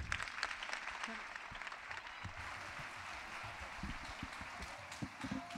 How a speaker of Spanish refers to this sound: ¡Aplausos!